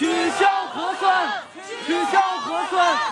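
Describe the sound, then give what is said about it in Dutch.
A protest crowd chants a slogan in unison calling mainly for an end to testing, two loud rhythmic phrases with rising and falling voiced syllables, separated by a brief dip in volume. “mensen hier roepen om eh, vooral op te houden met testen.”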